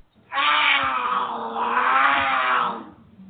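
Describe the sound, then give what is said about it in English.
A cougar lets out one long, harsh, loud snarl, rasping steadily for about two and a half seconds before cutting off, with no other sounds around it. “Do You have cougars on your porch swing?”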